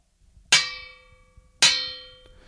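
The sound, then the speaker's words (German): An old metal bedpan, about 150 years old, is struck twice like a drum, each hit ringing out with a bright metallic clang and a long shimmering decay, with no talking. “Der Magic Seto hat eben die Leibschüssel, die 150 Jahre alte, glaube ich, die hört sich folgendermaßen an.”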